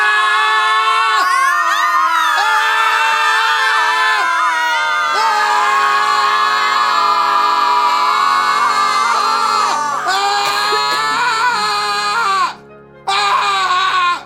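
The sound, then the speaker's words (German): A group of voices screams together on command at the count of three, in a loud, sustained, overlapping chorus of high wails and shouts that carries on for several seconds before a brief break and a final burst. “Dann auf mein Kommando bei drei schreien wir los.”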